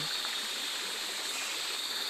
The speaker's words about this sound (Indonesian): jadi di bawah gemericik air yang arus sela-sela batu bara ini di bawahnya itu semacam ada air terjun ya air terjunnya ya cuma 30 cm nah di situ ada bagian yang dalam